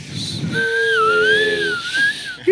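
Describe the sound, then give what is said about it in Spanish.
A person vocally imitates the whistling wheeze of the lungs, a sustained airy, wavering high tone over breathy hiss lasting about two seconds, fairly loud, with no speech. “Ah, es la silbilancia? Que sí, como que silba.”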